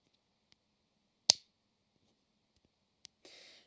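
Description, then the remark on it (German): Crisp plastic clicks from a retractable pen: one sharp loud click, a fainter one about two seconds later, then a brief scratchy rustle. No voices. “Du hast so einen Stift in der Hand und lässt so das Teil hinten klappen.”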